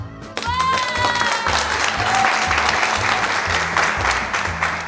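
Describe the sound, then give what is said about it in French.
Loud, sustained applause from a crowd welcoming a contest co-commentator, dense clapping steady throughout, with a rhythmic musical beat underneath and brief whistles or cheers near the start. “Sans plus attendre, je vous prie d'accueillir sous un tonnerre d'applaudissements celle qui commentera le concours avec moi”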